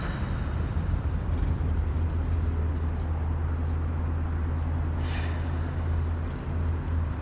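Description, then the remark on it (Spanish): A car engine rumbles steadily with a deep, constant low hum and broad road-like hiss, staying at an even loudness throughout as the vehicle pulls up and parks in front of the driver's uncle's house; no one speaks. “Aparca frente a la casa de su tío.”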